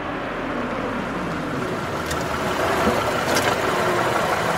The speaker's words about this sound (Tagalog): Mabilis na pumarada ang kotse